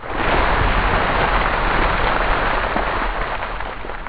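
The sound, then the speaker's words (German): A loud, steady rush of splashing water pours down continuously for several seconds, dense, like a heavy deluge of liquid. It is ice-cold water being dumped over a man's head by a specially built machine. No voices. “Und so klingt es bei Bill Gates. Allerdings hat der dafür eine extra Maschine konstruiert.”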